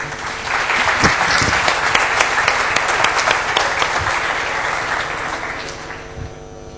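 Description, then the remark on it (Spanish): A room full of people applauds steadily, a dense wash of clapping that holds strong for several seconds before gradually thinning and tapering off near the end. “Y así que nada, si pedir un aplauso para ellos para que luego podamos tener las grabaciones y todo lo que estamos viendo.”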